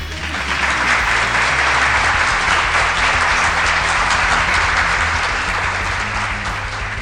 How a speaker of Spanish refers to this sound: Gracias, gracias, gracias por esos aplausos. Me, me da un poquito de vergüenza. Los, aplausos. Dale un poquito más de aplausos.